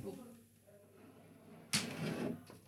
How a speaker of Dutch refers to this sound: Wacht, ik ga even hier de deur eh,